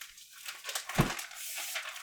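Paper rustles and crinkles for about two seconds, with one sharper, louder crunch midway as a sheet of paper is grabbed during a tabletop role-playing game. No one speaks.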